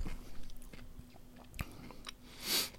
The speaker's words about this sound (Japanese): 飲み食いしながらなのでマイクテストも含んでるんで、なんか咀嚼音とか苦手な人は